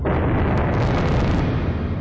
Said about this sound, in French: 1er mars, dans l'atoll de Bikini, explosion d'une bombe H américaine, 600 fois supérieure à la bombe A d'Hiroshima.